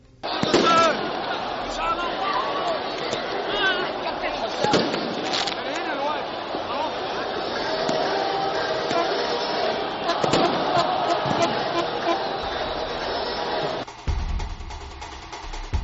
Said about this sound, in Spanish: Un tremendo tumulto, una enorme confusión, miles de personas invadiendo el terreno de juego y eh, un fuego en las gradas. Nadie sabía lo que estaba sucediendo.